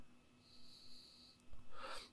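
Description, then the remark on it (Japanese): A quiet inhale from a tobacco-like vaporizer, recorded about 25 centimetres from the microphone: a thin, high-pitched airy hiss lasting about a second, then a brief, louder breathy rush of air. No one speaks. “なんか吸ってるような音とかそういうのしたら、ベポライザーってやつです。”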